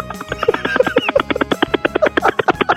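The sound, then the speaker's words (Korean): On Park Myung-soo's Radio Show, a person uses their voice to imitate a rescue helicopter heading out on a rescue, a fast, steady chopping pulse of buzzy bursts, fairly loud, sustained for a few seconds with no other talking. “구조를 하러 가는 헬기인데 아, 구조를 한번 해보겠습니다.”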